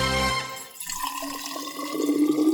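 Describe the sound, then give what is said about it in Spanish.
Water pours steadily into a mate gourd with fresh yerba, the gurgling tone rising in pitch as it fills, with no voices present. “Yerba renovada y agua lista para volver a tomar unos ricos mates”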